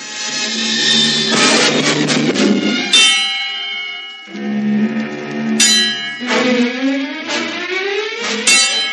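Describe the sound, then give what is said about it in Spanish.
Hermitage church bells toll loudly one night, ringing the toll for the souls, with several heavy strikes every second or so whose rich, ringing tones overlap and hum on between hits. No one speaks. “Una noche, cuando las campanas de la ermita tocaban el toque de ánima,”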